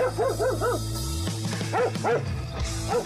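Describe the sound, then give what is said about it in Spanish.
A dog barks in quick bursts of short, high yips, pausing briefly between groups, with a low steady hum underneath throughout. “Si a usted le gusta patinar hasta el trabajo y también ama pasear a su perro, hoy es un buen día para combinar estas aficiones, pues hoy se celebra tanto el Día Mundial del Skate como el Día Mundial de llevar a tu perro al trabajo.”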